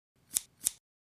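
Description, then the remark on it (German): Two crisp scissor snips in quick succession, close and fairly loud, each a sharp metallic shearing click, followed by a brief cut-off at the end. “Da uns der Schutz dieser Personen und auch von heute noch lebenden Angehörigen wichtig ist, haben wir die Nachnamen herausgeschnitten. Das klingt so.”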